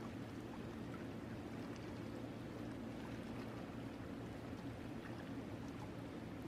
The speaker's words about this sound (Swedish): Och längre fram så hör du ett porlande ljud.